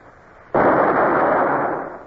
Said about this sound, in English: I fired again and again, working at the gun till my shirt stuck to me with sweat. The powder grains irritated my skin. But I could see no result.